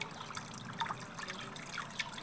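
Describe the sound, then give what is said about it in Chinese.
River water trickles and babbles steadily, a soft continuous wash of liquid with small splashy bright flecks scattered throughout, no voices over it. “老奶奶说完这句话，一颗巨大的桃子顺着河水飘了过来。”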